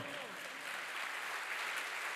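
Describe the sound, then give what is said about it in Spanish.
An audience at a church service applauding the Lord, a dense, steady wash of many hands clapping at a fairly even level for a couple of seconds, with a few indistinct voices mixed in. “Fuerte ese aplauso al Señor.”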